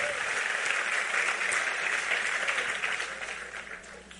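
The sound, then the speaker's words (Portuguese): An audience applauds, a dense, steady wash of many hands clapping that holds strong for a few seconds before gradually tapering off toward the end. “Aplauda ele, vamos orar, vamos embora.”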